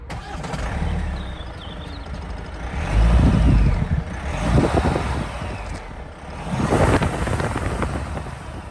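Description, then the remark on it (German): The 2.2-litre diesel engine of a Sorrento SUV, started with a button right of the steering wheel, cranks and catches, then settles into a steady low idle with a few revving swells, fairly loud, with no talking. “Erstmal starten wir den Motor des Sorrento, den 2,2 Liter Diesel fahren.”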